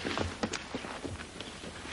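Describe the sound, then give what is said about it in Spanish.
Hurried footsteps of several people running off, a thief fleeing while two servants chase him, a quick, uneven patter of steps at moderate loudness with no one speaking. “Don Quijote desarma al ladrón que huye perseguido por los criados.”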